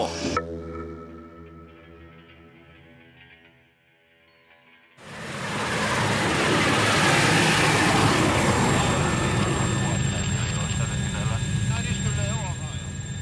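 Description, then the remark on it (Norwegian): Inside the cabin of a large Super Puma helicopter in flight, lifted off from Longyearbyen and heading out over Isfjorden: after a few seconds of steady tonal humming, a loud, dense engine and rotor roar swells in and holds steady, enveloping, with high whining tones on top. “Det store Super Puma-helikopteret har løfta oss til himmels fra Longyearbyen, og kursen er satt utover Isfjorden.”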